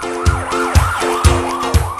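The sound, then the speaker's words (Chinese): A loud emergency siren wails in fast, repeating rising-and-falling sweeps, about two per second, with a low thump at each cycle and no voices. Any Doppler pitch shift is not evident in this short stretch. “这个呢，其实就是因为多普勒效应。”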